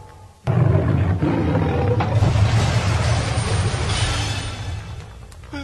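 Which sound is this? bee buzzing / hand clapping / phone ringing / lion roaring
lion roaring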